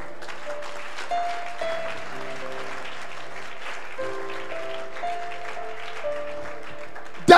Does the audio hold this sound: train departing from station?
no